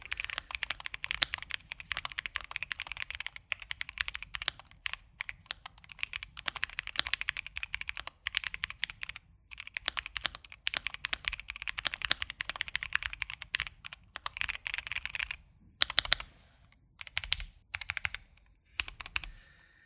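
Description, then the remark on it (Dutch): Steady, rapid typing on an entry-level mechanical keyboard, with dense clacky keystrokes for about twenty seconds and a few brief pauses near the end. No one speaks. “als je in de wereld van mechanische toetsenborden wil stappen, is dit voor minder dan 200 euro een heel, eh, hele schappelijke instapper”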